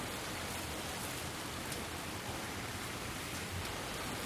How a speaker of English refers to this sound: a summer storm was pelting downtown Asheville.